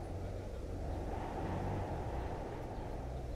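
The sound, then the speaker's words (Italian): A steady, heavy rumble of wind buffeting on an overcast day, a dense low roar that stays loud and constant throughout, leaving cars, birds, sirens and bells barely audible, with no other sounds standing out. “Il vento fa casino, sicché le auto, gli uccelli, le sirene e le campane si sentono appena.”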